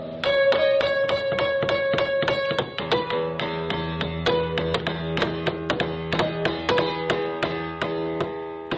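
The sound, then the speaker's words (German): A hammer pounds a piano over and over in a performance of George McCunas's Fluxus work Piano Piece No. 13, a steady, rapid series of loud blows, each strike setting off a jangle of ringing strings and sustained, clashing piano tones, with no voices. “Das Hammerklavier wörtlich genommen.”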